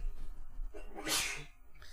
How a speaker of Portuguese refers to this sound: Saúde. Saúde. Desde ontem, lá aquele ar-condicionado bombando, né? Bombando, né? Atchim. Atchim.